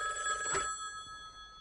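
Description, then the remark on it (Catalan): An electric telephone bell rings with a bright, sustained metallic trill, loud, its tones hanging steadily after the initial burst of ringing. “Oh, justament ara el telèfon.”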